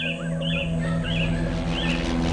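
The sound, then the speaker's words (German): Several short, whistled bird chirps repeat at intervals, clear, over a steady low droning hum in the background. “Er reiste durch die Welt, um sämtliche Vogelrufe, Stimmen und Klänge zu suchen und zu notieren.”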